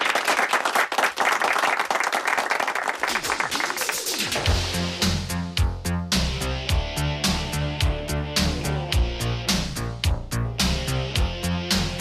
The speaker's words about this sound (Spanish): les brindamos nuestro aplauso, claro que sí.